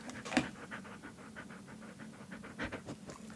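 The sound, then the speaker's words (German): A dog pants steadily, quick rhythmic breaths repeating for a few seconds, with a couple of sharper scratchy bursts near the start and end. “Und dieser Hund äh, ist absolut überzeugt, dass er wichtiger Teil dieses Podcasts sein soll.”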